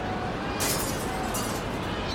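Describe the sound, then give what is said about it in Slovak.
Church window glass shatters in a sudden bright crash as wind bursts the windows open, followed by a second burst of tinkling shards, all over a steady rushing background noise. “Ozve sa rozbíjanie skla a výkriky.”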